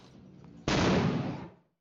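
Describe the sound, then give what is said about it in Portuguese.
After a quiet stretch of faint background noise, a tear gas grenade fired by police to disperse a protest in São Gonçalo, Brazil, goes off with one sudden, loud blast. It rolls into a harsh, hissing roar for about a second before dying away. “A polícia foi chamada e usou bombas de gás para dispersar o protesto.”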